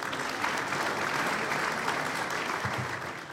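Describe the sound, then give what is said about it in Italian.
A crowd applauds steadily, a dense wash of many hands clapping at even loudness for a few seconds, with no clear voices above it. “Il brano che ci accompagnava dall'inizio della vicenda termina e nel piccolo frangente, prima dello scrosciare degli applausi, un fulmineo colpo di pistola rompe il silenzio.”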